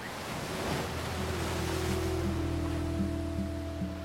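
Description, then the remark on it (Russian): Steady rushing sea waves wash continuously at a moderate level, with a faint low humming drone underneath and no voices. “Воин утонул, а свирель унесли морские волны.”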